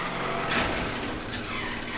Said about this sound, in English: Open the doors! Okay.